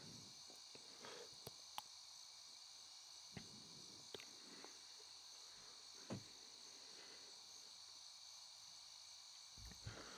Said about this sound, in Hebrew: אגב, הערב העוגן שלנו יהיו צלילים של צרצרים. ככה, שמעו ככה.